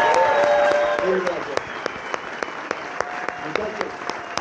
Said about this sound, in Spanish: Entonces, un aplauso verdadero. Gracias